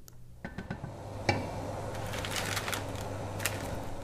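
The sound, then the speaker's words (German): A pack of dry spaghetti is handled while waiting for the cooking water to boil, its plastic wrapper crinkling and rustling in small bursts, with one sharp tap early on and a steady low hum underneath. “Nun hält sie das Pack Spaghetti in der Hand und wartet darauf, dass das Wasser zu sprudeln beginnt.”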